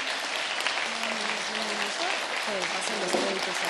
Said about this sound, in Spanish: Y quisiera pedirles a todos un aplauso